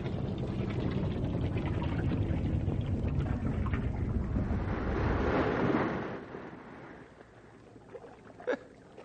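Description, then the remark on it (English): A boat's motor rumbles loudly on a river, then cuts out about two-thirds of the way through, leaving the quieter lapping of water as the boat drifts, with a brief knock near the end. “Cut the motor.”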